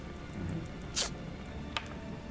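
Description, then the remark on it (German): A six-sided die is rolled, giving two brief, sharp clicks about a second apart against a quiet background hiss. No one speaks. “Das braucht keine Aktion und ich muss jetzt einen W6 würfeln, um zu schauen, wie lange er bleibt.”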